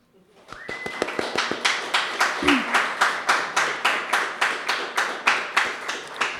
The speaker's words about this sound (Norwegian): Uh, jeg vil bare ta to sekunder til liksom en aldri så liten applaus til dama som ikke engang påstår at hun var med frivillig.